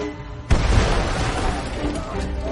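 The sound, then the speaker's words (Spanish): A hand grenade thrown into a trench during a battle explodes with a sudden loud boom, followed by a sustained rumbling roar and crackle that lingers without fading over the next couple of seconds. “Yuri hace una señal a Karit y el chico lanza una granada.”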